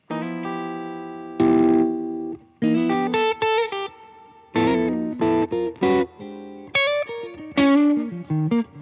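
Distorted electric guitar with a Curtis Novak humbucker pickup, ringing out bright sustained chords and short choppy riff bursts with brief gaps between phrases, fairly loud and with no voices.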